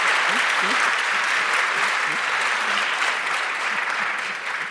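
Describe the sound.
Steady, dense applause from an audience for a guest and for the chickens fills the whole stretch, loud and sustained, with faint voices murmuring underneath and a slight fade at the end.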